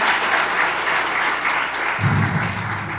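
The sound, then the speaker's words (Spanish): An audience applauds the brothers, a dense, steady wash of many hands clapping together, with a low rumble joining in toward the end. “Gracias hermanos, un aplauso a los hermanos.”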